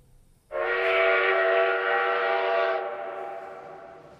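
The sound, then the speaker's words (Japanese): A train sounds one long, loud whistle blast as it pulls away from the station. The steady tone holds for about two seconds, then fades into a lingering echo. No one speaks. “ホームに汽車が到着するとおばあちゃんはサイラスにしがみつきながら乗り込みましたサイラスが買っておいた週刊誌を渡して汽車を降りるとすぐに列車は動き始めました”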